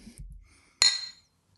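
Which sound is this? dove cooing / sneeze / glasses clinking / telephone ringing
glasses clinking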